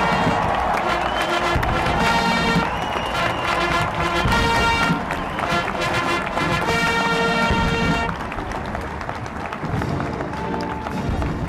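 A large crowd applauds and cheers steadily at the inauguration of President Donald Trump on 20 January 2017 as outgoing President Barack Obama congratulates him, a loud, dense wash of clapping with the US national anthem played by a brass band; the noise eases slightly near the end.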